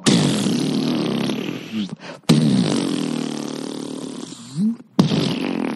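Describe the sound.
A voice imitates the wobbly twang of a springy door stopper behind a door, making buzzy, vibrating sounds in three long bursts with brief pauses, loud.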